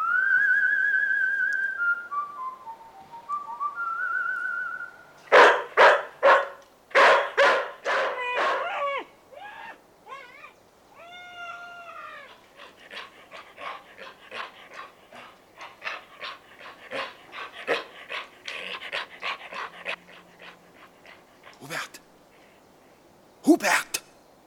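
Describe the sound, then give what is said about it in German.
A short whistled melody, Siegfried's horn call given as the signal for the dog to bite, gives way to a burst of loud, sharp dog barks, followed by a long stretch of quick, rhythmic panting and a final bark at the end. “Das Signal für den Hund: Tod beißen.”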